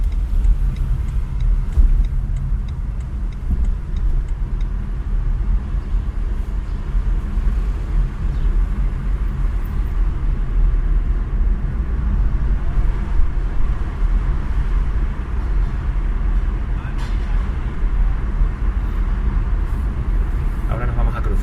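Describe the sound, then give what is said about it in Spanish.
Steady road traffic rumbles in through the open window of a moving electric car, a constant low roar of engines and tyres with airy wind noise, fairly loud throughout. “Pero si os parece ahora, abrimos las ventanillas porque yo creo que los coches eléctricos están muy bien aislados a posta. Y veréis ahora que el ruido ambiente.”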